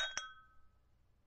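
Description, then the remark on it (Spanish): Crystal wine glasses filled with cherry-red wine clink together in a toast, two quick bright taps, leaving a clear ringing tone that fades away over a quiet background. “Tras un gesto de su amo, sirve un vino color guinda en unas copas de cristal.”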